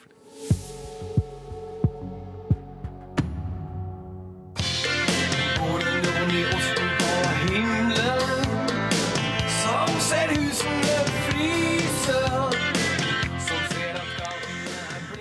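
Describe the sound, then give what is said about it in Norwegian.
A song by a well-known Norwegian rock band plays loudly, opening with a few slow, heavy drum thumps before the full band crashes in with dense guitars and steady driving rhythm, no talking. “vi hører her, det er eh, kjente toner fra Norges kanskje største rockeband noensinne.”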